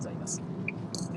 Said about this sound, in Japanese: 車での通勤中にポッドキャストを録音してしまおうという、え大変ズボラな番組で